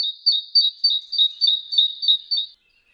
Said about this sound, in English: Urban songs are also faster, probably so they can be repeated more often let's listen to a forest bird. And now it's City Cousin. Once again, the forest bird. And now, the city bird.